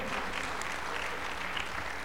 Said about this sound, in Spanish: Aleluya. Alguien, sí, sé que puedes aplaudir mejor, ¿eh?